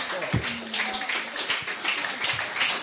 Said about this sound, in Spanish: Un aplauso para, este texto.